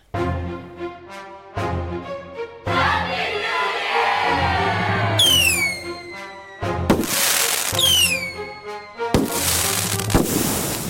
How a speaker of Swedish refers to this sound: mycket fin liten vignett.